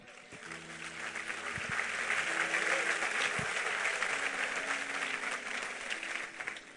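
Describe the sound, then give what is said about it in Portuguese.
A church audience breaks into strong, sustained applause to glorify God, dense clapping that swells and holds steady for several seconds with a few low organ or keyboard tones underneath. “Você pode glorificar a Deus com um forte aplauso?”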